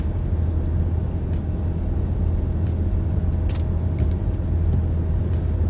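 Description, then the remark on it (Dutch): Steady low engine drone and road rumble from a car driving in a storm, about 10 minutes into the drive, a constant loud hum with faint scattered clicks and brief ticks above it, no voices. “Even kijken, ik ben nu op 10 minuten aan het rijden.”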